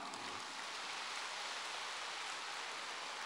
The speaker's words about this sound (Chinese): 对呀，对呀，鼓掌。